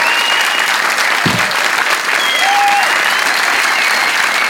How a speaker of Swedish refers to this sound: Tack så mycket. En applåd till Karl Svensson och Isidor.